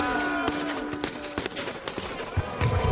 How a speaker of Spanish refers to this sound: Cuánto disparo, cuánta metralla, bomba y más y más bala y no solucionan nada.